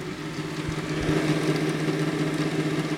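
A Super 8 film projector runs with a steady mechanical whir, a low humming drone and faint rapid flutter that holds even throughout, with no voices.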